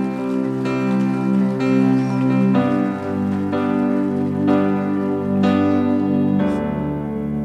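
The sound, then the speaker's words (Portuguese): An audience claps for Jesus in a steady, dense wash of applause over sustained keyboard chords that shift every second or so, holding an even loudness throughout with no one speaking. “Dê uma salva de palmas a Jesus aí então.”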